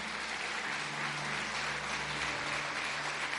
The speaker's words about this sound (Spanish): Vamos, dale fuerte ese aplauso. Si lo crees, dáselo fuerte al Señor.